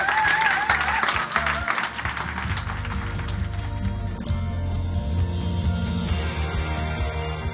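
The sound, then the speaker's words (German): A church audience claps heavily and steadily for the newly baptized as they are called forward, with a few high whoops and voices riding over it at first, then a low steady hum underneath as the applause continues. “Und deswegen möchte ich mal alle nach vorne bitten und ihr mit einem heftigen kräftigen Applaus den inneren Teppich legen.”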